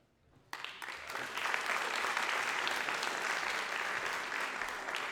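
An audience at SBU bursts into applause for the soccer coaches after a brief quiet moment, the clapping quickly swelling to a steady, dense roar of many hands that holds loudly for several seconds.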